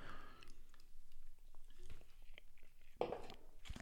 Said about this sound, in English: So, I, hang on a minute. I've got to have a sip of this.